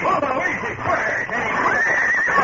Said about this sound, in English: Their own horses plunged about, squealing and bucking.